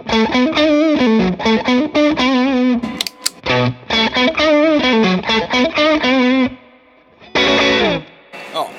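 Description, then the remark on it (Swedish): An electric guitar played through distortion pedals plays a quick melodic lick of repeated picked notes, stops briefly, plays the phrase again, then ends with a short bright burst after a pause; at the end the Heavy Hand pedal is set a little brighter and louder than the Brownie pedal. “så man hörde nu att på slutet var Heavy Handen ställt lite brightare än eh, Brownie till exempel.”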